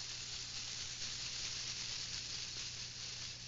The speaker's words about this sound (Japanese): はい、ちょっとホワイトノイズにも近いこれは安全ピンがぶら下がっております。